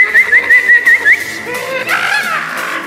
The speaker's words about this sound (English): Whistle again!